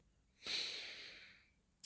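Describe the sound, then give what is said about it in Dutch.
A single long, deep breath drawn in through the nose, starting sharply and then slowly tapering off over about a second, with no talking. “En de mooiste ademhaling is eigenlijk door je neus in.”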